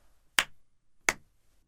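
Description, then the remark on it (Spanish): Two sharp hand claps by a bailiff at a gallows, spaced about three-quarters of a second apart, each a crisp bright smack with a short ringing tail, standing alone against near silence with no voices. “Después, el alguacil dio dos palmadas.”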